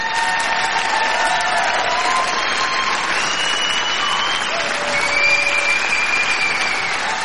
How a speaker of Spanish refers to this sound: bueno, aplausos. ¿Para quién? Pues para Ayuso, sin más.